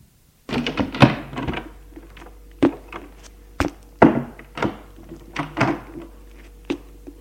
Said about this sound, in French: ouvre la porte de la chambre de ses parents.